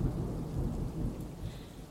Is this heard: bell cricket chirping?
no